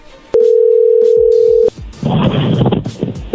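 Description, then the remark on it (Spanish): A steady, loud telephone dial tone holds for over a second as a man's phone number is dialed, then cuts off, followed by a burst of busy clicking and line noise as the call connects. “le marcamos y esto fue lo que pasó.”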